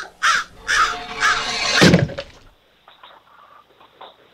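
Several loud, harsh crow caws in quick succession, followed by a few fainter, softer calls trailing off. No one speaks.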